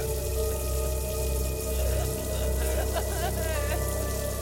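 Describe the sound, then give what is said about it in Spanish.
Water runs steadily from a bathroom faucet that has been turned on and left running, a continuous hissing rush that holds at an even level throughout, with faint voice-like tones rising briefly near the end. “Abrió la canilla y dejó correr el agua mientras se sentó en el borde de la bañera y se puso a llorar.”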